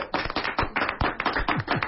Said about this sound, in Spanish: Sí, aplausos. ¡Bravo!